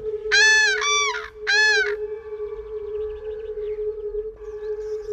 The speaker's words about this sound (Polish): do zobaczenia tuż przy odlatujących żurawiach